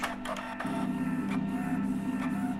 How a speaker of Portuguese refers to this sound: É basicamente uma impressora andar para a frente e para trás.